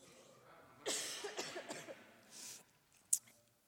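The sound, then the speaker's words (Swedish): A speaker about to talk to a church audience gives a short run of throaty coughs, several quick bursts close together, followed by a softer breathy exhale and a sharp click. “Eh, och jag har lite hosta som jag ber om ursäkt för här i förväg.”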